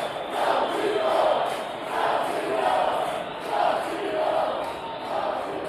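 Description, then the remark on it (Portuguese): A large stadium crowd at a Brazil vs Bolivia football match chants the name of Felipe Coxinho after his headed goal made it 2-0 to Brazil, a steady rhythmic swell of voices repeating every second or so, loud and continuous throughout. “Passe do Richardson para Felipe Coxinho de cabeça na segunda trave, 2 a 0 E tem seu nome pela torcida, ó.”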